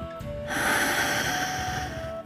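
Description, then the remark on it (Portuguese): A single long, deep breath with the mouth closed, a steady airy rush lasting nearly two seconds, with a soft oceanlike hiss and no talking. “Agora, com muita delicadeza, feche a sua boca e mantenha essa respiração ainda profunda, que nos remete ao som do mar.”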